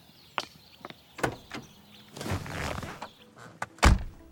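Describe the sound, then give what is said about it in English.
A car door opens with a few sharp clicks and a rustling swing as someone gets into a car, then shuts with one solid thunk. No one speaks. “So I went outside, got in the car with him,”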